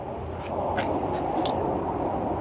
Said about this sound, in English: I hear a fighter jet behind me. We can't see it because of the cloud cover.